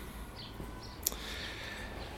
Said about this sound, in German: so zwischendurch mal mehr wohnungsmäßig und vielleicht gleich wieder ein bisschen mehr nach Vogelgezwitscher klinge, liegt es daran, dass ich gerade meine Gedanken so ein bisschen sortieren muss und das mache ich am besten, indem ich mich bewege.